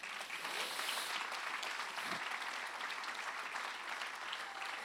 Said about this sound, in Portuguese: Será que você pode dar um aplauso ao Senhor Jesus?